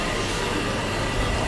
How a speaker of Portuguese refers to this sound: Esse barulho que vocês estão ouvindo aqui é o som do moedor de café, que eu vou até sair de perto porque eu sou alérgico.